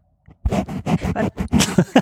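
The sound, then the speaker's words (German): Close, soft rustling of knitting yarn being handled, coming in a quick series of about eight scratchy bursts over two seconds, with no talking. “Warte, ich habe ich hab, ich hab Garn hier.”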